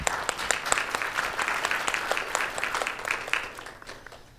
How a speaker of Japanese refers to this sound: はい、はい、どうもありがとうございます拍手しましょう。